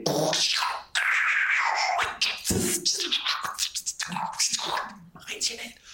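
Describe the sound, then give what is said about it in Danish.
Crackling radio static with shifting hiss and whistling tones as a dial is turned back and forth, snatches of broadcast sound breaking through, loud and continuous. “Du ved, det er ligesom, når alt støjen langsomt forsvinder helt væk, fordi du siger, de sidder og drejer på kanalsøgeren frem og tilbage.”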